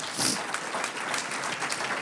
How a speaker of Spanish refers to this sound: Y lo hacen, estas damas lo hacen con amor. Un aplauso a las hermanas que cocinan.